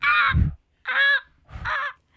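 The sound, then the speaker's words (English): A child's voice imitates the cry of an eagle with a broken wing: three harsh, squawking calls, loud, each about half a second long with short pauses between them. “One day he saw an eagle with a broken wing.”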